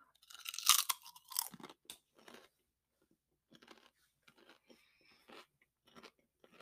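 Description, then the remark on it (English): Loud crunching as a bite of kettle corn is taken, followed by softer, sporadic chewing sounds with short pauses between them; no one speaks. “Again, white as hell, poofy, soft texture, really good crunch. So this one, kettle corn. Let's see how it goes.”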